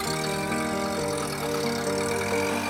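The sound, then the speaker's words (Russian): The engine of a GAZelle van loaded with belongings runs steadily as it drives away, a continuous mid-pitched rumble with a faint droning whine, holding at an even loudness throughout with no voices. “Мой муж с сыном сели в груженную вещами «Газель» и уехали.”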